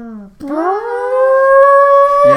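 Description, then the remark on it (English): A person uses their voice to imitate a gym lunk alarm that goes off when people deadlift: one loud, sustained droning tone that slides upward in pitch, then holds steady for about two seconds, like a short siren wail. “But what is the alarm like? audibly it, goes, do.”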